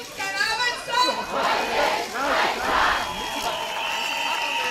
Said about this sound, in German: haben sich hunderte Menschen für eine Demonstration vor dem Haupteingang in Gießen versammelt